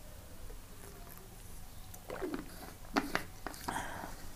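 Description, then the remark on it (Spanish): Quiet sips of water followed by a few soft swallows, with small wet mouth clicks clustered in the second half. No one speaks. “Puedes tomar unos tragos de agua, que yo voy a hacer.”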